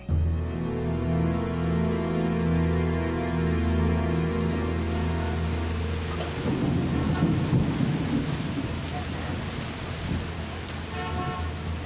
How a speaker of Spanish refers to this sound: Una tarde de lluvia